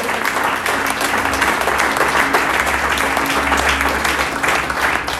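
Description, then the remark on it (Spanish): An audience claps steadily and loudly for several seconds, a dense wash of overlapping handclaps with a low hum running underneath and no speech over it. “Alguien si le va a aplaudir, de fuerte.”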